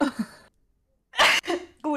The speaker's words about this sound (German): Ges ähm, Gesundheit. Gesundheit. Oh mein Gott. Gesundheit. Gesundheit.